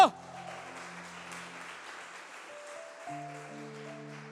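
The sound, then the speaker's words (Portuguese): A church audience applauds the Lord Jesus Christ loudly in a steady, dense wash of clapping that lasts the whole stretch, while sustained keyboard or organ chords hold underneath and shift to new notes partway through. “Aplauda o Senhor Jesus Cristo bem alto.”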